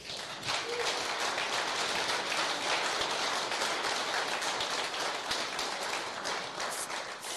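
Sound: audience applause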